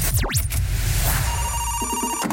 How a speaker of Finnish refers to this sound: Mulla on puhelinnumero täällä ylhäällä, ja tästä lähtee soitto nyt.